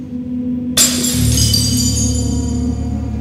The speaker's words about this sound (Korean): 거울 깨지는 소리가 어, 들리는 거예요.